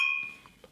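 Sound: glasses clinking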